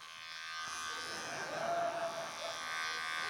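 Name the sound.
electric razor buzzing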